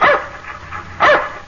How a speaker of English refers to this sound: That's my dog, Tige. He lives in a shoe.